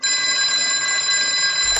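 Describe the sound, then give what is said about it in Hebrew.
A telephone bell rings in one loud, continuous, shrill burst lasting under two seconds, then cuts off with a sharp click: the phone installed in 1934 in Berl Katznelson's home on Maze Street in Tel Aviv. No one speaks. “בשנת 1934 התקינו בביתו ברחוב מזה בתל אביב מכשיר טלפון.”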